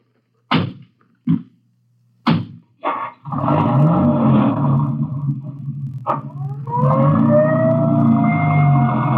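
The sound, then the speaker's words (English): A few sharp knocks or thumps, then an ambulance siren starts up and wails loudly, its pitch sweeping and rising as it carries on to the end. “I'll ride back in the ambulance with the girl.”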